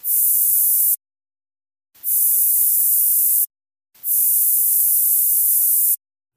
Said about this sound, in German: Und zu guter Letzt, nach diesem sehr, sehr hitzigen Thema, das vielleicht den einen oder anderen zum Schwitzen gebracht hat, ein bisschen Deo.